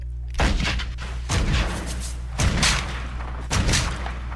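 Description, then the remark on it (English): Four loud gunshot sound effects fire at a steady pace, about one per second, each a sharp booming crack with a rumbling tail that fades before the next. No voices. “Got a new gun this episode.”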